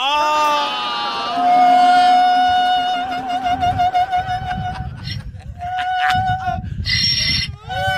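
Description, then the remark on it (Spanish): A person loudly imitates a female donkey's bray, with strained, honking cries sliding up and down in pitch, repeated in rough bursts over about eight seconds. “Le preguntaron, yo fui a Irlanda y le pregunté a la burra cuándo fue la primera vez que hizo este ruido.”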